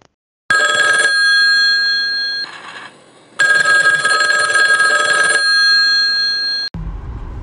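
A telephone bell rings loudly in two long, buzzing bursts separated by a short pause, then cuts off abruptly, leaving a low background rumble; it serves as the cue for a call-in segment.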